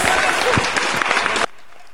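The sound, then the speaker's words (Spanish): Dense, steady clapping from a crowd, applauding a cover song, fills the first second and a half at a strong level, then cuts off abruptly into near silence. “Aplausos para, ese cover ahí medio extraño.”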